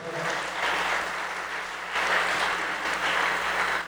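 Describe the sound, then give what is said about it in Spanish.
A church audience gives a strong round of applause to the Lord, a sustained wash of clapping, dense and steady for several seconds with a slight swell partway through, no voices heard above it. “Y la iglesia le da un fuerte aplauso al Señor.”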